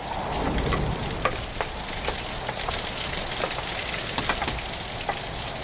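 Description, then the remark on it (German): Heavy rain pours steadily in a dense hiss at a bus stop on Wiltshire Boulevard, with scattered sharp drops tapping through it and a low rumble of storm gusts sweeping down the street underneath. No voices. “Sturmböen fegten durch die Straße und trieben Bob weiter unter das Dach der Haltestelle zurück, wo eine junge Frau ebenfalls Schutz vor Wind und Regen suchte.”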